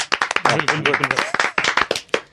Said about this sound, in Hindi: please polite applause तेज तालियां बजाओ